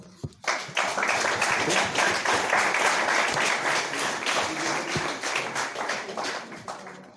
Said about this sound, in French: peut-être on peut, on peut t'applaudir. Hein.